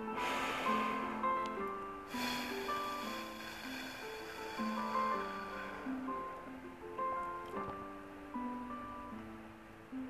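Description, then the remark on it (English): Airy breathing over soft sustained music: a short inhale through the nose followed by a long, slow, hissing exhale through the mouth with pursed lips, as though through a small straw, repeated twice. “it is breathing in through the nose. And you're going to breathe out through your mouth as though you have a small straw”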